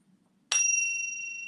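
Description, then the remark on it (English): A small pure silver bell is struck once, giving a bright, clear ding that rings on with a steady, shimmering tone after a moment of quiet. No one speaks. “Just a, a, pure silver bell.”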